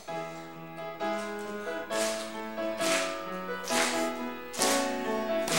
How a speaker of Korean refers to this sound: 우리 찬양하실 때 어깨를 좀 쭉 펴시고 고개를 좀 드시고요. 고개를 좀 드시고 힘차게 박수하시면서 무슨 넓이로 치죠? 예. 굉장히 이렇게 풀이 좋은 목소리로 예. 무슨 넓이로요? 어깨 넓이로 우리 힘차게 박수하면서 찬양하겠습니다.